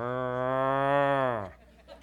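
A single long cow bellow, loud, holding a steady low moan for about a second and a half before dropping off sharply into quiet.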